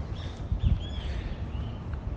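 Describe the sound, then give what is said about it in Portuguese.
Faint, scattered bird chirps and whistles in the woods of Ibirapuera park drift above a steady outdoor hum of city rumble, with a brief soft thump near the middle and no one speaking. “Então vocês vão notar os barulhos em volta de mim, os pássaros, as pessoas.”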